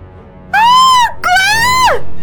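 A woman lets out two loud, high-pitched screams in quick succession as she runs out of a bedroom, the first rising then falling off, the second longer and sustained before dropping away, with no other voices.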